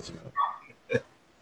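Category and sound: animal, dogs barking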